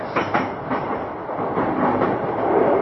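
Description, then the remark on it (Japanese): A Tokaido Line commuter train in Japan rolls along with a steady, loud rumble as it nears its terminal stop, Odawara; a few sharp wheel clacks mark the opening moments before the noise settles into an even roar. No one speaks. “東海道線をご利用いただきましてありがとうございましたまもなく終点の小田原に到着で”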